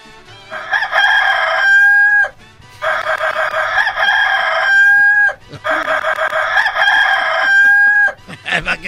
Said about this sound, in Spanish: ¿Por qué no volvemos como antes con el despertador del gallito? Recuerde que este es el sonido que lo despertará para que no olvide el rancho.